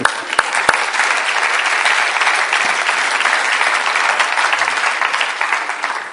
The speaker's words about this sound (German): Ich möchte sagen, das ist auch ein Applaus wert.